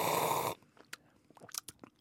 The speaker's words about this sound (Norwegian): Slurp. Ordentlig slurping.